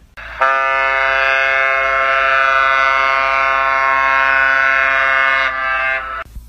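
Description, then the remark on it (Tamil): A single long ship's horn blast, sounded to Yanbu port by a ship anchored at the port's limits, holds one steady, deep, brassy pitch for about five seconds at full loudness, then drops away with a short fading tail. No voices. “கப்பலின் சங்கொலி யான்பு துறைமுகத்திற்கு சமங்கியானது”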